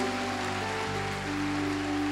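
applause

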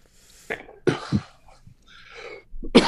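coughing

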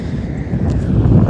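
wind buffeting the microphone

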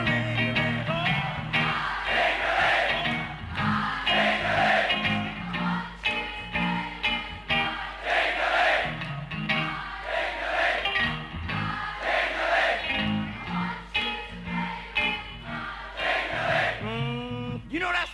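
crowd singing along

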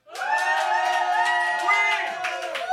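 studio crowd cheering

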